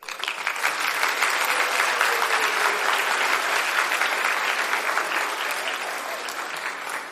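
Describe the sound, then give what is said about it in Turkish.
Sustained applause from a crowd, a dense, steady patter of many hands clapping at an even loudness for several seconds without a break. “alkışları ve tebrikleri kabul edebilirim.”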